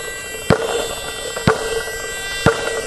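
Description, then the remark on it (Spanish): A basketball being dribbled on a court beneath the basket as the player moves to the left: three sharp, ringing bounces spaced evenly about a second apart, each a loud slap over a steady background hum, with no voices. “Me voy a mover hacia mi izquierda, driblando la bola.”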